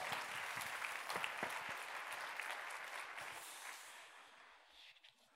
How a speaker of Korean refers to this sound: 오늘 이 새벽에 나와서 우리들에게 귀한 이렇게 또 나눔을 주셨는데 두 분께 한번 감사의 박수 해주시 기 바랍니다. 감사합니다.